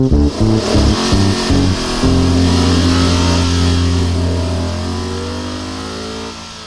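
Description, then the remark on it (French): A Blackwing sports sedan's engine revs hard in short bursts, then shifts from first to second gear and settles into a steady, loud drone that slowly fades as the car pulls away. No one speaks. “dans la Blackwing, quand je passé du premier au deuxième rapport, je me suis exprimé à voix haute.”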